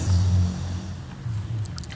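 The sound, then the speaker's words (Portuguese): Heavy, muffled bass thumps from a passing car's loud music, with little treble, the beat swelling and fading in low pulses. “tem um carro passando com música alta, uma moto passando, um entregador.”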